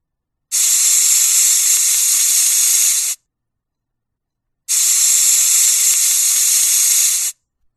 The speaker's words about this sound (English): Oh, in someone's house there is a meal being cooked. I think it's the sound of the pressure cooker.